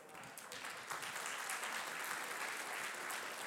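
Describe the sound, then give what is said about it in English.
A crowd applauds steadily, a dense wash of many hands clapping at once that stays loud and even throughout, with no voices breaking through. “Now, some of you aren't even sure you should clap at that.”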